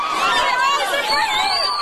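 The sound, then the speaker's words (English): A loud, dense crowd commotion of many overlapping voices shouting and yelling, with excited, chaotic energy throughout and no single voice standing out. It comes from Black Friday shoppers turning on one another at a Walmart in America. “Shoppers consumed with the deal turning on one another at this Walmart last year.”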